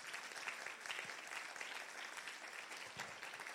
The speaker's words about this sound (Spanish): ¿Cuántos lo pueden creer en esta mañana? Vamos a darle un aplauso fuerte a Jesús.